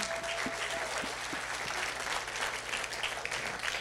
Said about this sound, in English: Brilliant. Can you give them a round of applause for me?